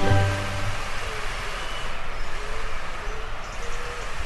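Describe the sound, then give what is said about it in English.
A steady patter of water from a watering can splashing onto flowers and leaves in the Jasper Memorial Bed, a continuous soft hiss lasting several seconds with a brief low hum at the start. “That is the sound of water falling onto some of the beautiful flowers in the Jasper Memorial Bed.”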